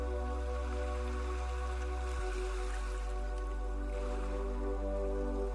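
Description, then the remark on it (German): Soft, steady ocean waves washing onto a beach in a calm rhythm of coming and going, hissing continuously with slight swells, set against a low sustained humming drone. No one speaks. “Richte deine Aufmerksamkeit mal auf die Wellen, die an den Strand gespült werden.”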